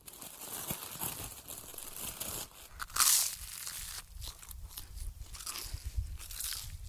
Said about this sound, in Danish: Og med al den snak om at tabe sig, så har jeg helt glemt at spise morgenmad. Så jeg napper lige en hurtig klap sammen.